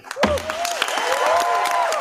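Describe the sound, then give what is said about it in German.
A crowd at an environment assembly bursts into steady applause as a resolution against waste worldwide is adopted without objection, dense clapping mixed with raised cheering voices that rise and fall throughout, loud and sustained from nearly the start. “Ohne Gegenstimmen wurde die Resolution angenommen, verkündete der Vorsitzende unter Jubel.”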